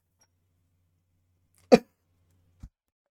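A single sharp cough from someone getting a little sick bursts out of near silence, followed a moment later by a faint, brief low thump.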